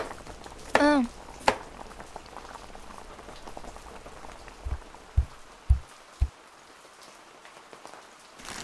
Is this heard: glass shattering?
no